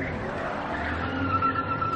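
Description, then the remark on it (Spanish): Hank's car rounds a street corner with its tires squealing, a sustained high-pitched screech over a steady engine rumble as it brakes hard to a stop beside Jesse. No one speaks. “El coche de Hank gira a la esquina y se para junto a Jesse.”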